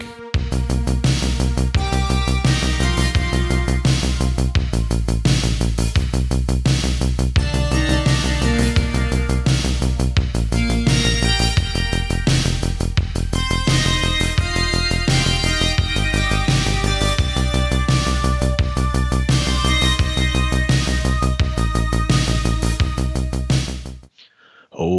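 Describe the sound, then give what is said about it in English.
Loud, full-band instrumental music with a steady driving beat and sustained harmonic layers plays continuously for about 24 seconds, then cuts off abruptly. No voices are heard. “Hit the music.”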